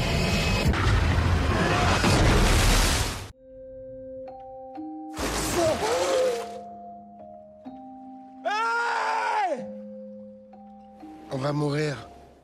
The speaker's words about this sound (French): qui comporte une assez longue séquence d'attaques puis de crash en plein océan Pacifique d'un B-24D